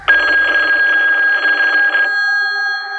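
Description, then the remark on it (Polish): A telephone rings loudly, a dense trilling bell for about two seconds that then settles into a steadier, softer tone. No voices. It is a call placed from a nearby phone booth to an employer. “W międzyczasie z pobliskiej budki wykonał telefon do pracodawcy ojczyma Keryl.”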